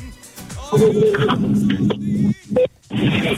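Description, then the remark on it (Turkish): A short electronic beep from a car's hands-free phone system sounds over steady, noisy background rumble, with brief tonal blips standing out before the noise resumes. “Bip kurulan. Bak araba otomatiğe gitti. Duydu, duydunuz mu o sesi?”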